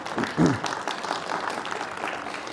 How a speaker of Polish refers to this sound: Nie klaszcie, nie klaszcie, bo oklaskujecie księdza